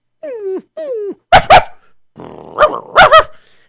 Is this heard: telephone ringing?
no